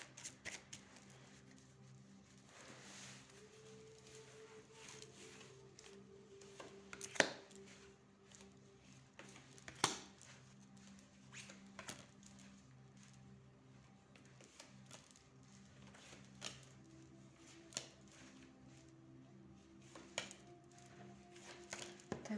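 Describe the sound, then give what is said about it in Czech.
Quiet card shuffling: soft papery riffles and scattered sharp taps and flicks, irregularly spaced, over a steady low hum, with no one speaking. “A já už se dívám na vaše fotky, míchám u toho karty a podíváme se teda spolu, uh, jak se bude barvit do budoucna tady tento vztah.”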